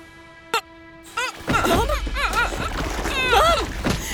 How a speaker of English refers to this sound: The boat lurches, the boom swinging above our heads. Sails fidgeting irritably, bow whirling towards the cliffs.